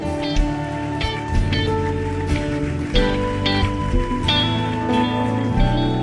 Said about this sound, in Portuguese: Forte aplauso a Ele, meu amado irmão.